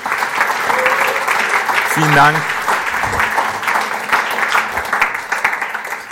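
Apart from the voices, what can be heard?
audience applause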